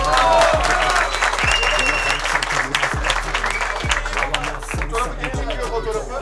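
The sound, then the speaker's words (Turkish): A crowd applauds the president of the Ayıboğan Sports Club steadily, the dense clapping filling the whole stretch, while a low pounding beat thumps at regular intervals underneath and scattered voices and cheers rise through the noise. “Allah'ını seven defanslı gelsin spor kulübü başkanını alkışlıyoruz.”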